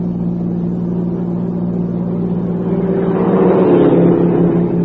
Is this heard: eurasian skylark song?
no